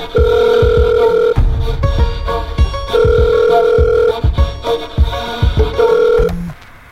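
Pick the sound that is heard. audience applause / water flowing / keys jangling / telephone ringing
telephone ringing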